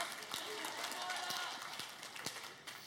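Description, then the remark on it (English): A crowd applauds the speaker's wife steadily throughout, a dense patter of many hands with a few sharper claps standing out, fairly soft, with no clear talking over it. “not so that you would clap, although I thank you for it”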